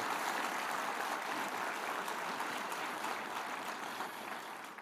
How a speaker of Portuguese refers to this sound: Dê para Jesus uma forte, forte salva de palmas.